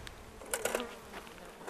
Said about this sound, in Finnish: Katsotaan tuo pesä tuosta. Oho, mikä kuhina. Siellä näkyy noita kennoja ja valtavasti Joo. mehiläisiä.